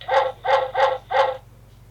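An alarm clock set for 18:05 going off: four evenly spaced, harmonically rich beeps in a quick, steady rhythm, fairly loud, over a faint low electrical hum, then stopping.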